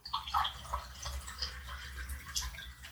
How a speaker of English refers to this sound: No. Jesus, I need to pour more wine.